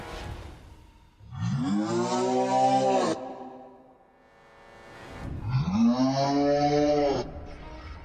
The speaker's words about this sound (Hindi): एक तेज हाउलिंग की आवाज आई